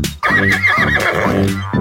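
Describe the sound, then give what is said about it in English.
A loud horse neigh: one drawn-out whinny with a shaky, wavering pitch that rises and falls over about two seconds, with no talking over it. “Oh, look at all the animals. There's the horsey.”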